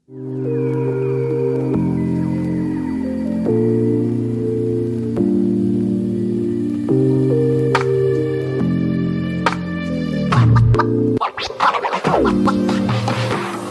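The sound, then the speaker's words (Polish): A short electronic closing jingle plays alone: sustained synth chords step through a simple melodic sequence, then end in a noisy, scratch-like flourish. No one speaks. “Czas na, mm, na teraz dżingiel końcowy, a my słyszymy się w kolejnych podcastach.”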